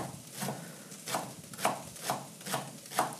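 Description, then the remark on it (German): A knife chops through three leek stalks in a steady rhythm, about seven crisp strikes roughly every half second, each a sharp crunchy thud on a board, with no one talking. “Und dann kann schon geschnitten werden.”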